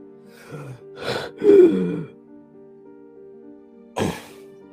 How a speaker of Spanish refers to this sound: Como viene siendo habitual desde hace semanas, me despierto sobresaltado, respirando fuertemente y con la sensación de que tengo una soga en el cuello que aprieta y aprieta.